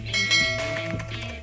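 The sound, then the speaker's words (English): A bright, ringing notification bell chime, as in a subscribe-and-ring-the-bell reminder, sounds over a low, steady musical backing, its shimmering tone sustaining clearly for the short moment with no voices present. “All you got to do is subscribe and ring that bell so you don't miss out on a thing.”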